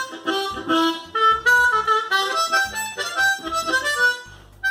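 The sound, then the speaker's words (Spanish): A bright, reedy harmonica plays a lively tune with quick melody notes and chords over a low bass accompaniment, loud throughout, with no voices. “Pero, ¿cómo sonaría esta canción con una armónica?”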